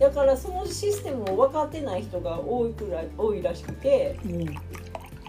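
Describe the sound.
Barley tea trickles softly into a glass while a man keeps talking in the foreground, the light pouring sound running beneath his voice.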